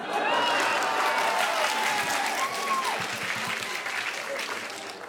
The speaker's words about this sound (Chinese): 鼓掌鼓得特别的给力